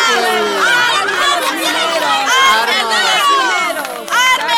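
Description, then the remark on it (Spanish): A large crowd of miners shouting all at once, demanding arms from the president, many raised voices overlapping into a loud, continuous roar of yells and cries that stays intense throughout. “Pero escuche los gritos de los mineros.”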